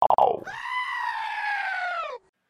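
A single loud, drawn-out goat bleat with a wavering, nasal quality, about two seconds long, preceded by a few short abrupt bursts of sound, with no talking.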